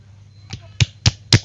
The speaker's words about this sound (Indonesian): Itu apa? Tepuk tangan.